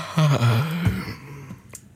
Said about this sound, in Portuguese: Toda a gente boceja, não é? Vamos fazer um grande bocejo a nível nacional. Vamos a isso. Ah.